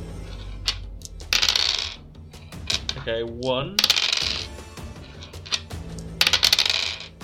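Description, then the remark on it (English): Several dice clatter and tumble across a hard tabletop in bright, rattling bursts, settling with a few final clicks, rolled for a dexterity (athletics) check in a game. Brief speech is heard between the rolls. “Roll me dexterity, okay. athletics. So you're good at this because you have one less dice than normal.”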